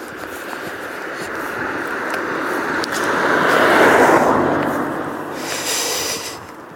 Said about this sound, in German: Oh, jetzt kommt ein Auto. Jetzt habt ihr gleich Atmo mehr als ihr wollt.